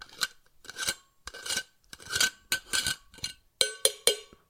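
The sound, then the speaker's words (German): A metal water bottle being handled: about ten short, uneven bursts of clinking and scraping, each with a faint metallic ring, and no voices. “metallene Wasserflasche.”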